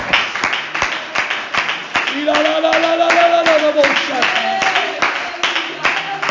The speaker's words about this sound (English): Let's clap our hands one more time and give the Lord praise today.